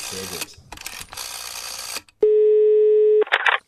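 A loud, steady telephone ringing tone sounds once for about a second, after brief talking, as a call is placed to a phone joker for help with a German thrash metal question, and ends in a short burst of noise as the line seems to connect.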